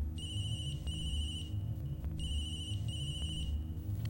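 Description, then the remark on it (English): A phone rings twice on the other end of the line, each trilling electronic ring lasting over a second before a short pause, with a steady low hum underneath. “It actually started ringing.”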